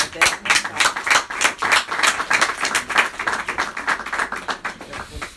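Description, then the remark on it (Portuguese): An audience at a talk on Lefebvre claps steadily for several seconds, many hands producing a dense, rapid patter of sharp claps at a fairly even, moderately loud level. “Bem, como diria a Fátima Campos Ferreira, não batam palmas sempre que alguém fala.”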